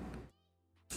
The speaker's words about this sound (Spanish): Y bueno, están escuchando como muchos ruidos de fondo, ¿no? no, ese es un avión. avión y así. Siento que ya volvimos al turismo, entonces otra vez hay ruta comercial.